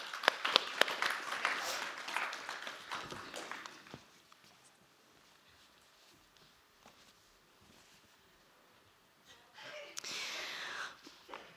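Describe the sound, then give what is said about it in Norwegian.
A crowd at Touchpoint claps for about four seconds as performers leave and three new ones come up, fades into a quiet pause, then breaks into a second, shorter burst of applause near the end. “Så da klapper vi ned og opp”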